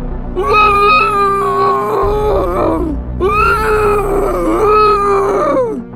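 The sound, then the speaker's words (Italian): Two long, wavering ghostly howls, loud, each lasting a couple of seconds with a short gap between, their pitch sliding and trembling over a low background rumble; the howl of a ghost. “Avete sentito? Era l'ululato di un fantasma!”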